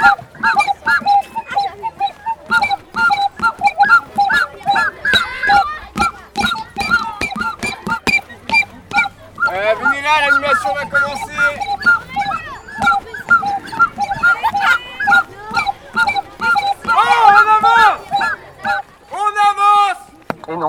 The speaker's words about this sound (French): ce n'est pas le rhinocéros. Tu as raison, bravo. C'est un éléphant qui barre.